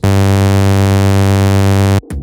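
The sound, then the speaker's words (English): A single sustained synth note with a bright, buzzy sawtooth tone, held steady and loud for about two seconds before cutting off abruptly, followed by a brief soft tail. “We once again start out with the most boring sawtooth sound in the world.”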